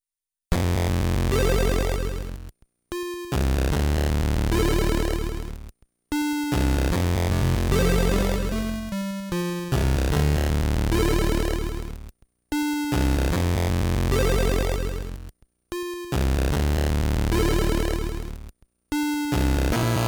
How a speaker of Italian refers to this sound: questo è un pezzo tratto dal suo primo disco, eh, lui compone musica bellissima con il Game Boy. Ascoltate il pezzo se vi ho incuriosito, si tratta di un omaggio a una meravigliosa serie TV per nulla inquietante.